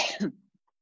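coughing

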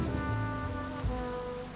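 rain falling

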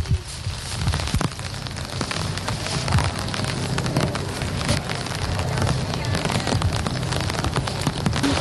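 rain falling

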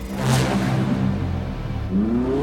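fast car engine revving

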